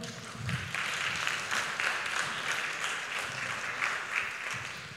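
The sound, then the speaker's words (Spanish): Steady applause from an audience, a dense wash of many hands clapping continuously at an even level for several seconds, with no voices standing out. “Denle un aplauso, por favor.”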